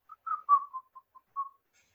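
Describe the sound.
A man who has just looked away from a passerby whistles a short, casual tune of about six notes, fairly quiet, with a wavering pitch and small gaps between notes, performed alone with no talking.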